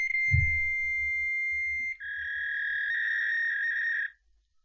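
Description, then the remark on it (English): A dial-up modem style tone heard when calling a phone number registered to Mountain View, California: a steady, piercing electronic whine that abruptly drops to a slightly lower, buzzier pitch halfway through, then cuts off after about four seconds, with a faint thump at the start. “Isn't that that's a dial-up modem sound?”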